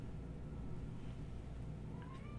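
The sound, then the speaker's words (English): A single short, soft meow from a cat that had just been sleeping rises near the end of a quiet stretch, over a steady low background hum. No one speaks. “She's like, you woke me up.”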